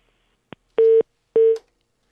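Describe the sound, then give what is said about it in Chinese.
A short click, then two steady, mid-pitched telephone beeps of about a quarter second each with a brief gap between them: the tone a line gives after a call is hung up. No voices. “可以放电话了，好不好？”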